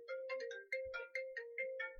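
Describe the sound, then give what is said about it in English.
A phone ringtone plays a bright, repeating electronic melody of short chiming notes in a steady rhythm, clear with no voices over it, as protesters call the phone. “my cross is vibrating.”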